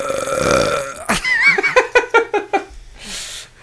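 A long, loud, rumbling belch, then a burst of rhythmic, pulsing laughter and a final breathy exhale.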